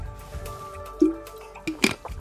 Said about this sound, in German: Ich trinke, bevor ja, ich schraube mal auf.